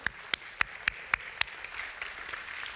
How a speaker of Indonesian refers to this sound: Oke, beri tepuk tangan buat Tuhan dong.